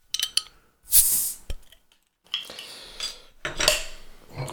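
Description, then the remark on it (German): A beer bottle cap, not a large one, is pried off: metallic clicks and clinks, then a bright, hissy pop, followed by more rattling of glass and metal, with no talking. “Ja, schon gehabt, damit italienische Flaschen neigen dazu, verschiedene große Köpsel zu haben.”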